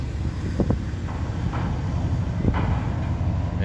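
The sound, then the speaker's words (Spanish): Steady low rumble of engines and machinery fills an open outdoor port scene at the Paseo de las Olas in Coronel, with wind buffeting the microphone and a few faint clanks in the background. “E, eso que están escuchando del puerto.”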